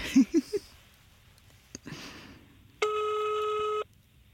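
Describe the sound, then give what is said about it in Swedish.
A single steady electronic ringback tone lasting about a second, heard over a phone line after a few short blips and a faint rustle, with no talking, as a call is placed to the florist Kristoffers blommor. “Vi får ringa en florist.”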